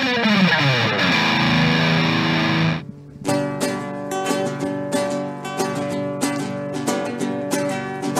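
A loud song played on air with heavily distorted, effect-laden guitar: a dense swirling chord with a falling pitch sweep cuts off abruptly, then a steady rhythmic section with punchy beats and sustained chords follows, no voices.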